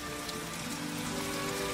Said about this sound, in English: In the rain. Is it still raining? I hadn't noticed.